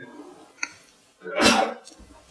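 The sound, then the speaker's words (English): A single loud sneeze bursts out after a short quiet stretch, sharp and breathy, following a faint click and some low background murmur. “Bless you.”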